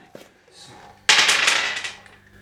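Two regular twelve-sided dice are rolled, landing on 11 and 2, a sudden bright clatter of rapid rattling hits that tumbles for about a second and then fades out, after a brief quiet lead-in.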